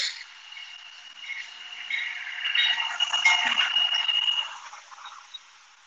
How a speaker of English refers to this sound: Um, there's a train coming by. Hold on.